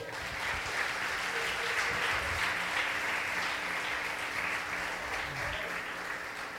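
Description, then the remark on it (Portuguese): An audience applauds the Lord in a steady, dense wash of clapping that holds at an even, fairly loud level for the whole stretch, with no clear voices rising above it. “Aplauda ao Senhor.”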